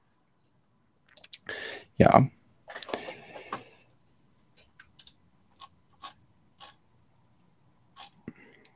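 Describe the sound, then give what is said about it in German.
Crinkly plastic rustling and tearing as plastic bags are opened, with a burst of louder crackling early on, followed by a series of short separate clicks and crinkles spaced about half a second apart. “Moment, ich muss gerade hier nochmal Tüten aufmachen.”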